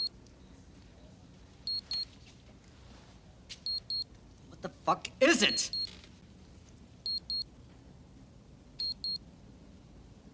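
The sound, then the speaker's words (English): A wristwatch alarm chirps in quick high-pitched double beeps, repeating every couple of seconds at a soft, steady level, during filming on a quiet street, while a man speaks briefly over a low background rumble. “You don't hear a beeping sound.”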